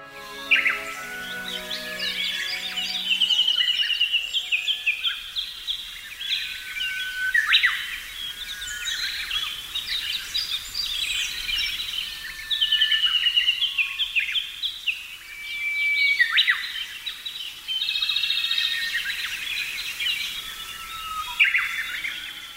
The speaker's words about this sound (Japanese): ウグイスのさえずりがとても賑やかです。連続して鳴き、谷渡りを盛んにしてコーラス全体を盛り上げています。ウグイスの他は、コマドリ、エゾムシクイ、キビタキ、ホトケギスの鳴き声が聞こえます。